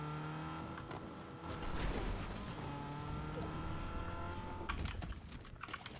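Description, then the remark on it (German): A motorcycle engine in a video game hums steadily, its pitch rising as it revs, then shifting down and surging again near the end; a continuous drone with no talking. “Ey, Motorrad hinter äh, hier. Bei, bei mir.”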